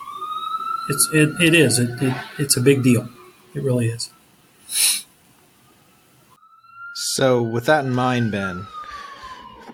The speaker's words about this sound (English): pardon the sirens.